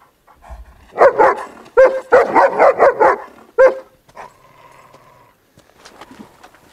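A dog barks loudly in a rapid burst of about eight sharp barks, pauses, gives one more bark, then trails off into quieter whines and yips.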